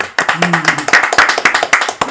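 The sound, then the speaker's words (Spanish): Brief burst of hands clapping, a quick irregular run of sharp claps from a few people, with a faint murmur of a voice underneath early on; applause introducing a returning professor. “Aplausos, entonces.”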